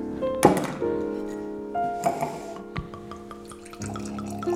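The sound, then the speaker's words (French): Light white wine of 11.5% alcohol is poured into a glass, starting with a sharp clink, then a steady gurgling trickle whose pitch shifts as the glass fills. No one speaks. “c'est à part, ça, ça ressemble pas au blanc, ça, je, bah, te laisser goûter euh, au lieu de, parler. Clac, tiens.”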